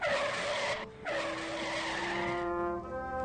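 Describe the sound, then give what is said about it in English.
A long, loud screech of truck tires skidding on a street, broken by one brief gap, then trailing into a high rubbing squeal as the truck grinds to a stop. No voices. “I zoomed downward into the street, stopped the truck with my right hand,”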